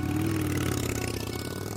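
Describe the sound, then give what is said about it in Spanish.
A motorcycle engine runs at a steady, throbbing idle as it is shifted into first gear, with a low rumble and faint mechanical clatter and no voices, holding even for under two seconds. “A veces todo se trata de meter primera y seguir hacia adelante, porque mi moto, como la mayoría de las motos, no tiene marcha atrás”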